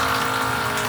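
A steady rush of water pouring from a water dispenser, with a faint motor-like hum running underneath, continuous and fairly loud for the whole second, with no voices.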